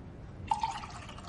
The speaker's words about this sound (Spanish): Cersei sirve vino.